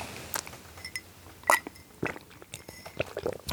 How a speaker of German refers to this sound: Ja, Moment, ich muss eben einen Schluck Wasser trinken, damit ich euch hier nicht voll huste.